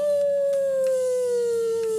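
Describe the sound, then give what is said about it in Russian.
A dog named Dashka howls in one long, steady note that slowly sinks in pitch, loud, with no voices or other sounds around it. “Дашка завыла.”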